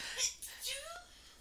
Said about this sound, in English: Bless you. And once again, studio audience doesn't cover her nose or her mouth while sneezing during a pandemic.